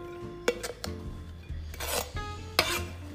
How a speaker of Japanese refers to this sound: これをじゃあ一旦お皿にどけておいてこのまな板を一旦洗って